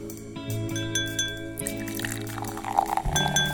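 Sparkling wine pours and fizzes into a glass for a few seconds, a bubbly hiss building over a steady tonal background, with no distinct cork pop standing out.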